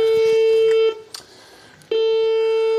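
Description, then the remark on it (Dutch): A small bell rings in two sustained, bright, steady bursts, about a second apart. The tone is loud and clear, with a short quiet gap holding faint noises between the rings. “Even kijken, wat doe ik dan? Belletje.”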